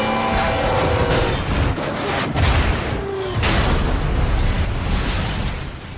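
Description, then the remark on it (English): A massive million-pound freight train roars past a crossing, a loud, continuous low rumble with heavy rattling and a few deep booming thuds, a faint horn-like tone briefly audible at the start. “on the tracks, we have Bull, a million-pound freight train that takes a mile to stop”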